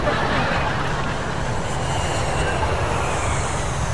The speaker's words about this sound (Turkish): Lan ne oluyor lan? Açıktan geçsene oğlum oğlum. Ay yolcu uçağı öldürüyordu bizi.